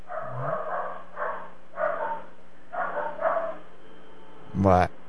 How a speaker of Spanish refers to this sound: escucha a los perros ladrando? Sí.